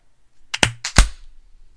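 A few quick hand claps on a count of three, two, one, clap, two sharp loud ones about a third of a second apart with softer claps around them, slightly out of sync as one person claps on the word clap and another after it, and no talking.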